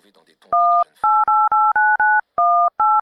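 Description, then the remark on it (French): A number is dialed on a mobile phone to make a reservation: a quick, steady run of about eight loud, clean keypad tones, each a short two-note beep, following a brief murmur of voice at the start. “Vous avez un téléphone portable Évidemment. Chut maintenant, je dois faire une réservation.”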